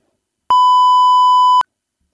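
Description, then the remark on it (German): A single steady electronic beep from a soundboard, a pure mid-pitched tone lasting about a second with clicks at its start and end, loud and alone with silence around it. “Ja, ich spiele schon wieder zu viel an den bunten Knappen rum.”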